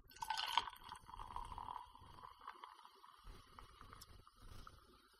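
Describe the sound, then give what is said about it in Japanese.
More ginger ale sour is poured into a glass as a top-up: a loud gurgling splash at the start, then a softer, uneven trickle and light bubbling that continues for several seconds. No one speaks. “追加で注ぎたいと思います。”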